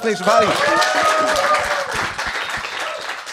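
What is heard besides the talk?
studio audience applause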